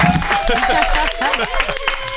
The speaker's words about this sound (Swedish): Det är de som får applåden, grabbar!